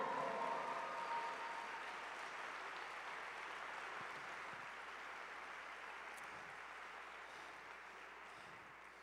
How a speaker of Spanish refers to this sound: Vamos, si vas a aplaudir, apláudele fuerte.